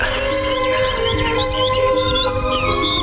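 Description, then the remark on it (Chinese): Two small birds chirp in quick, high, curling tweets that overlap and repeat throughout, set against a steady low background hum with no talking. “啊，还有两只小鸟在笑我们呢。”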